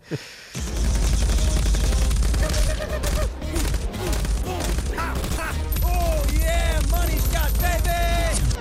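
Loud, rapid bursts of video game gunfire from Shadow Warrior 3, the third entry in the Shadow Warrior first-person shooter series, dense and continuous over a pounding soundtrack, with occasional shouted voices and explosions mixed in.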